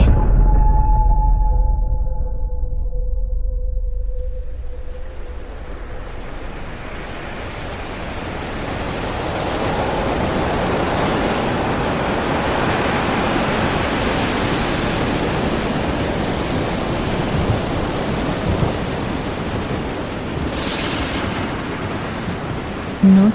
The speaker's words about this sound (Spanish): El mar embravecido rompe el silencio con cada ola. La luna apenas es visible en la región de los lagos, al sur de la costa de Chile. Una gran tormenta hace que la oscuridad de la noche se vuelva todavía más profunda, más fría